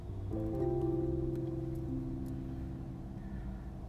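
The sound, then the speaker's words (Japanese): A loud car engine revs hard, its pitch stepping up through the gears in a sustained mechanical roar that stays strong before easing slightly as the vehicle passes by. “何あれあの車マジマジあれ通らないでしょけん絶対意味わかんないんだけどなんでああいう車なんかもさっさと捕まえてくれないのすごい迷惑なんだけど”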